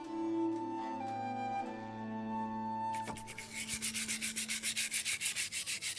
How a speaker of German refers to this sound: Vor ihm steht eine Plastikschüssel mit Wasser. Er selbst versteht sich als Experte fürs Scherbenwaschen.